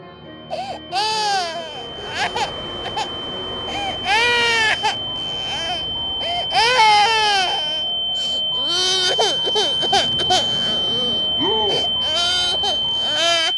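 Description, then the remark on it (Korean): A baby wails in repeated rising and falling cries, loud, with a steady high electronic tone humming beneath the whole time. “그리곤 그 아기 울음소리가 귓전을 때리기 시작했다.”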